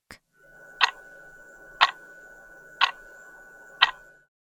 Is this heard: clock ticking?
yes